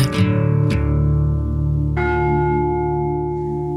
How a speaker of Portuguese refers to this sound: tivemos quase que galgar o palco, porque o gongo da FLAD chamou-nos